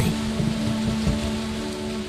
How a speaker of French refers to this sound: Mais au milieu de la nuit, l'orage se déchaîna. La pluie tomba violemment et la tempête se mit à gronder.